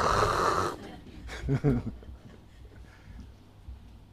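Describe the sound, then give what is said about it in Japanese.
A voice imitates a husband's loud snoring in his sleep, one harsh, raspy rattle, then a short voiced sound and quiet room noise. “何あの夫のあのね寝る時のあのいびきの大きさ”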